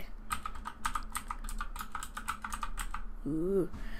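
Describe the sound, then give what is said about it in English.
Rapid clacking of keys on a gaming keyboard, a quick irregular burst of sharp clicks, ending with a brief voiced sound. “I got Wolfenstein 2 and the game and keyboard, which you probably heard”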